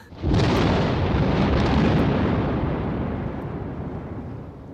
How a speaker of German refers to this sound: Aber da nun ein majestätisches Gewitter heraufkommt, das ordentlich zu gut und zu erhaben scheint für die Werkeltagsstadt, so fliegt der göttliche Gedanke in mir auf, allemal während der Donner auf seiner Heerpauke fürchterlich wirbelt.